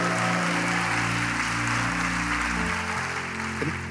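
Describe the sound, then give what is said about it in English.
A large audience at a church service applauds and cheers loudly and continuously for about four seconds for people on stage helping to preach, with steady sustained musical tones humming underneath the dense clapping. “Make some noise for the preaching corner over here.”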